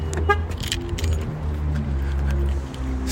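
Metallic jingling of keys as a door is locked in LA, over a steady low engine rumble, as if inside or beside an idling car, with a brief horn-like tone early on.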